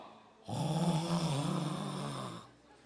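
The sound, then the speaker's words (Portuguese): A man does a loud, drawn-out snoring imitation of a fellow churchgoer dozing off during a church service, one continuous rough, rattling snore lasting about two seconds, with quiet before and after. “E ele dorme e ronca. E ele faz mais ou menos assim”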